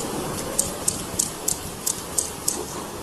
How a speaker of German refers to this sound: diese Klick-Sounds ist der Pottwal, der seine Beute klickt. Und diese, dieser Krach, der nebenher läuft, ist das Eis, wie es, wie es abbricht und wie, wie Eisschollen zusammenstoßen.